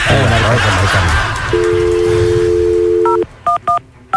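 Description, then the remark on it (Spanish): Voices talk briefly, then a steady dial tone hums before a mobile phone number is dialed: about four short, bright two-tone DTMF beeps in a quick, uneven sequence. “y le dices que cómo está, pero así como si hablaras cubano, a ver si lo agarramos en la móvil.”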